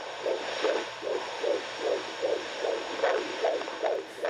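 A fetal heartbeat on a midwife's doppler speaker at a prenatal checkup, probe on the belly: rapid, evenly spaced whooshing pulses, about two or three per second, over a steady electronic hiss, with no one talking.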